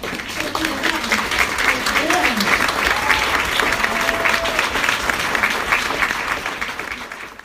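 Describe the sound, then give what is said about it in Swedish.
An audience applauds an author steadily, a dense wash of clapping that holds for several seconds before easing off, with faint voices and a whistle-like tone mixed underneath. “En stor applåd till vår författare.”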